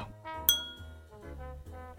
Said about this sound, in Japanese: 長期保存に適した神戸の水道水の氷を生の水道水に浮かべたクールなウォーターレモン果汁を数滴すっきりな喉越しを楽しんでくださいではお待たせしました水道水オンザロックですじゃあえ先輩乾杯しましょう